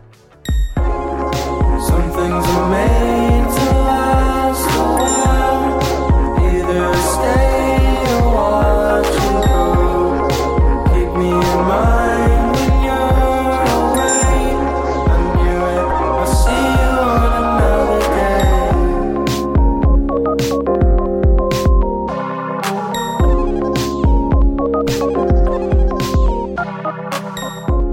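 A full band song plays steadily at a strong, even volume, with a driving rhythmic beat, sustained chords and bright percussive hits running throughout, with no talking over it.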